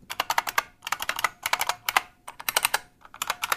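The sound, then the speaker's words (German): Rapid, loud clicky typing on an IBM Model M mechanical keyboard, bursts of sharp keystrokes in quick clusters with brief pauses between them, with no voices. “Machen wir, tippe ich jetzt hier mal kurz die Tasten an.”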